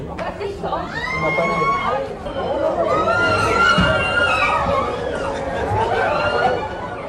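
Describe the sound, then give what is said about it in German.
Noisy commotion in a town hall council chamber in Mexico as North American raccoons fall through the ceiling panels and run around: many voices of politicians and journalists chattering and calling out at once, with excited exclamations and rising shouts over a steady babble that stays loud throughout. “Die Tiere, nordamerikanische Waschbären, fielen durch die Deckenverkleidung in den Sitzungssaal, rannten orientierungslos herum und sorgten für Aufregung unter den Politikern und Journalisten. Viele sprangen von ihren Stühlen auf.”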